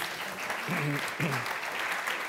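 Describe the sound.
Steady audience applause for two invited politics students from the University of Bremen at a candidates' event fills the whole stretch, a dense, even wash of clapping with a brief voice or cheer rising through it midway.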